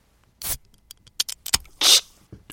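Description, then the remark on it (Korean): A beer can is opened, played as a sound effect: a few metallic clicks and scrapes, then a sharp, loud hiss of escaping fizz, followed by a faint click. No voices. “뭐가 새 나오는 것 같죠? 맥주 캔 따는 소리입니다.”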